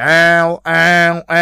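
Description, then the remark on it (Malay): A person's voice imitates an angry cat with three loud, drawn-out yowls, each about half a second long, in a quick even rhythm. “Itu bunyi kucing macam dia mau marah.”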